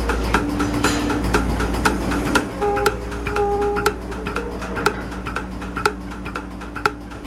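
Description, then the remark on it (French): A milking machine pulsator on a dairy farm pulses while milking cows, its membrane action massaging the cow's teats. A steady run of sharp, clicking ticks sounds over a constant low mechanical hum, with a few brief higher whines rising through the middle. “Ce qu'on entend, c'est la pulsation. C'est ce qui permet par un jeu de membrane de masser le crayon.”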